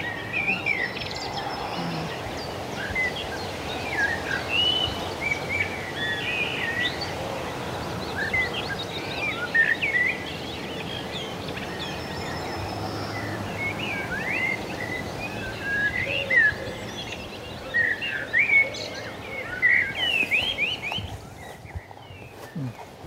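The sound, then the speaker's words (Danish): A dense chorus of water birds calling outdoors, with many overlapping sharp chirps and squawks rising and falling continuously over a steady background hum, moderately loud. “var en vandfugl, som havde stået det som Stefan også se. Og den ene fugl”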